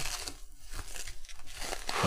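Bubble wrap being pulled and unwrapped from a secret Santa gift holding a refrigerator penguin, a continuous run of crinkling, crackling rustles with small irregular pops, fairly loud and with no one talking.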